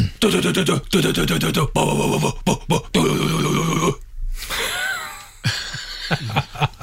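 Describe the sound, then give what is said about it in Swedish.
A voice hums a death metal song melody for a listener to guess, in loud, growly, rhythmic bursts separated by short breaks, shifting to a breathy, raspy stretch partway through before the hummed phrases resume. “Eh, och därför, med detta härliga trudelutt som du nynnade på och sjöng, så vill jag också att du efter jag har nynnat på det här, så ska du gissa vad det är.”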